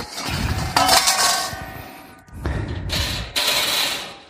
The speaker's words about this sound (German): Jetzt stelle ich mir das hier schon mal bereit mach den Grill auf. Ist noch kein Rost drin.